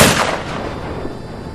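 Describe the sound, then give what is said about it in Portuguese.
A single loud gunshot, a second shot fired after reloading, with a sharp crack at the start, followed by a long rumbling echo that slowly fades away. No one speaks. “E eu recarrego e dou um segundo tiro”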